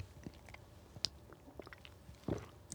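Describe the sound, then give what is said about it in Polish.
Someone takes a quiet sip of water: soft wet mouth clicks and smacks scattered through a hushed stretch, then a fuller swallowing gulp near the end. No one speaks. “ale, ale, czekajcie, aż wezmę łyka wody, bo to jest ważne.”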